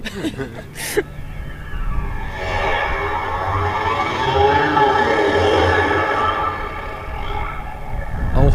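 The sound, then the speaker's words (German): A sound sculpture at an aerodynamic park, one of several that start to sound when sat on, mimics aircraft wind and engine noise: a droning mix of rushing wind and engine-like hum swells and holds steady for several seconds, layered with shifting tones, after a brief sharp rattle at the start. “Man hört also verschiedene Klangmuster, die natürlich künstlerisch, ich sag's mal ein bisschen, ich komme ja nicht aus der Kunst, aber künstlerisch etwas frei, diese Geräusche assoziieren, die in der Luft”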